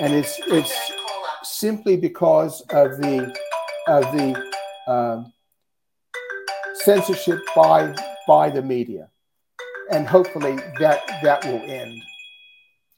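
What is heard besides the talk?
phone ringing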